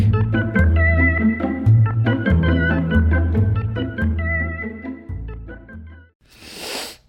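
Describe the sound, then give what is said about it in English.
A short, breathy sniff as a person smells their own armpit, heard right after about six seconds of bright instrumental music with steady bass notes ends. “That's the sound of me smelling my own armpit because I smell like a coconut vanilla cookie.”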